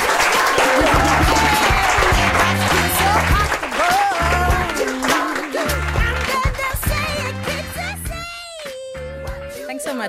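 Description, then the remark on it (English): An audience claps steadily and loudly for a guest at the end of a talk, a dense wash of applause blended with upbeat music with a thumping beat that carries on as the clapping fades slightly toward the end. “please a big big hand to Anja here”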